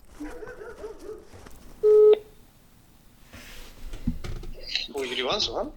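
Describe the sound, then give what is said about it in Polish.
A single loud, steady electronic telephone tone lasting about a third of a second as a phone call is placed, with people talking before and after it. “jestem dziennikarką i dzwonię w sprawie robotów.”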